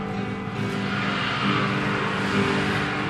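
A car engine revs hard with tires screeching, a loud, continuous roar that holds steady and swells slightly midway, with no voices.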